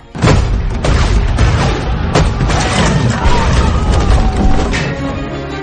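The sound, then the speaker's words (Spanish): Cannon fire from artillery pieces set off by lit fuses at the gunner's shout booms out in a loud, continuous barrage, sharp blasts cracking through at irregular moments over a dense, rumbling roar that never lets up. “En cuanto otro grupo de mexicas sobresalieron por encima de las escaleras, al grito del artillero prendimos nuestras mechas provocando un estruendo chordecedor.”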